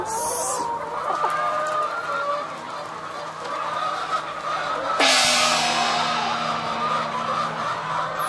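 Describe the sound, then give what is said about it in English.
A crowd of hens clucking and calling nonstop inside a hen house where they have lots of space to move around, layered and busy, with one sudden louder squawk partway through and no voices. “here we are inside the hen house. And as you can see, the hens have lots and lots of space to move around.”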